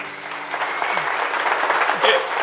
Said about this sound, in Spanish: Pásale un, aplauso para el tocayo, ¿no?